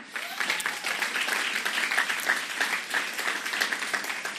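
Sustained applause from an audience as a man is called up onto the stage, a dense crackle of many hands clapping at a steady, fairly loud level for several seconds with no voices standing out.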